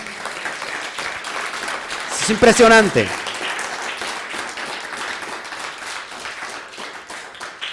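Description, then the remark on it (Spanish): Sustained audience applause for the Blessed One (God) during a Spanish-language spiritual talk, a dense crackle of many hands clapping throughout, with a brief spoken exclamation rising above it partway through. “Dale un fuerte al, aplauso al bendito sea.”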